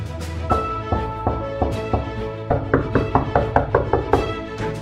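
A series of sharp knocks on a door, starting with a few spaced raps and then speeding into a quicker run of knocking, heard over a steady musical background with no voices.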